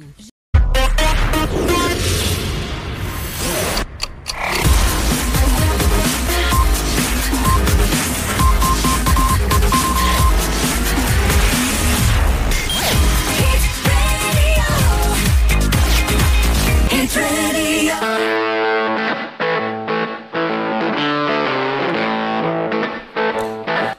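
A loud recording of a rock song played on the radio station Amica FM, with fuzzy, distorted guitar and a pounding beat, thinning in its last few seconds to a sparser tonal passage.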